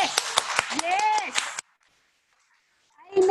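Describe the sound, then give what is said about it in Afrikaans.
A crowd gives the Lord another round of applause, clapping in a quick, uneven burst while voices cheer and call out over it. The clapping stops abruptly, leaving a moment of silence before a voice starts speaking. “Kom ons gee vir die Here 'n ander klap.”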